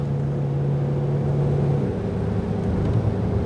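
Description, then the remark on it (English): A used car, a dealer's discard bought at an auction, runs during a test drive with a steady low, continuous rumble and whir, its hum shifting slightly in pitch partway through as if changing speed, heard from inside the vehicle with no talking. “Drives good. Doesn't sound terrible.”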